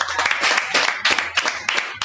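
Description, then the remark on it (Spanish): A group applauding steadily, many overlapping hand claps forming a dense, bright crackle that holds at a fairly even loudness throughout, with slight surges and no voices standing out. “Y un aplauso para todos.”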